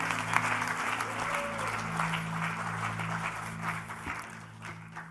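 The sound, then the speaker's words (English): An audience applauds steadily to welcome a guest preacher at a Sunday morning church service, a dense wash of many hands clapping at an even loudness for several seconds, with a low sustained hum underneath that fades slightly at the end. “So would you give him a big, big, big warm welcome as he comes to minister and to share the word of God this morning?”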